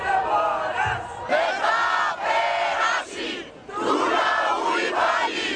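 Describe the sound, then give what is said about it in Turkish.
A large crowd chants in loud, rhythmic bursts, voices rising together in repeated shouted phrases with brief dips between them, protesters calling out in unison against the inhumane treatment of asylum seekers by Greece. “Sığınmacılara uygulanan insanlık dışı müdahale protestoları da beraberinde getiriyor.”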